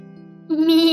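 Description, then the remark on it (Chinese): A single sheep's bleat, a steady nasal tone that suddenly swells louder and brighter halfway through and holds there, with no talking around it. “咩！羊毛出在羊身上，你的羊毛属于你自己。 绵羊用尽全力声明说。”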